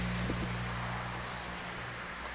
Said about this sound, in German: Ich hoffe, man hört mich, auch wenn, man, wenn hier in der Nähe die, die Autos vorbeischauen, äh, vorbeischauen, vorbeifahren.